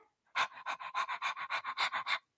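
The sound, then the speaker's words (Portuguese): A person pants like a dog as a breathing exercise for singers, a quick run of about a dozen sharp, breathy huffs in steady rhythm, fairly loud with no talking. “Embora seja principalmente é, destinado para aqueles cantores que estão tá bem no, tão bem no comecinho da carreira, eu quero que você simplesmente respire como um cachorrinho faria, né?”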